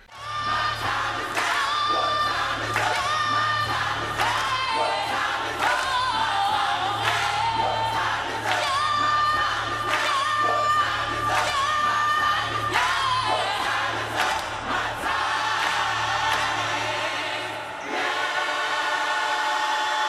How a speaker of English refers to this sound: There is something so awkward about 70,000 people booing a fucking gospel choir.